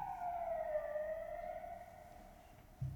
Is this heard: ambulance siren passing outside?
yes